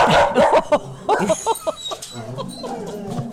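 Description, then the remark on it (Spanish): A dog barks in a quick run of short yips mixed with whiny, whimpering sounds, the bursts tumbling over one another for a few seconds. “¿Vas a dejar algún ladrido, sí?”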